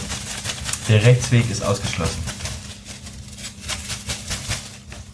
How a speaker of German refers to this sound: der den Beutel gerade äh, mischt.